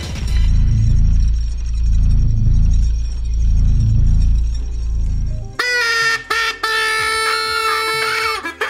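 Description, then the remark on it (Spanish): A deep, pulsing rumble fills the first five seconds, then abruptly gives way to loud, nasal horn honks that blare in a stuttering, goose-like series. “Oye, salió como ganso.”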